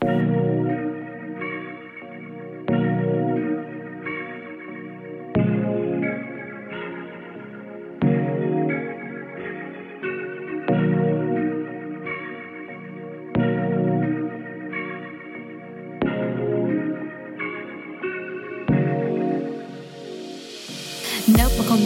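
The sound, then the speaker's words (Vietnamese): A rap song's instrumental plays loud, a layered synth loop repeating in steady bars with a thudding downbeat every few seconds, swelling into a bright noisy sweep at the end; no one speaks. “ngay bây giờ đây thì mời các bạn chúng ta sẽ cùng nhau thư giãn một chút với âm nhạc các bạn nhé.”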